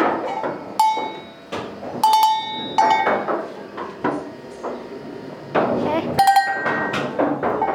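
Several metallic clanks of real cowbells on plastic cows ring out at irregular intervals, bright and resonant, in an indoor replica of Switzerland with a meadow and mountains on the wall, mixed with background chatter and bustle.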